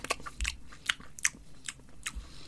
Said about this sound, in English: Holds it up to the camera, snaps a bit off, holds it up to the camera, and then he puts it in his mouth and he chews it for what seems like forever. He's on chewing it for like about I don't know thirty seconds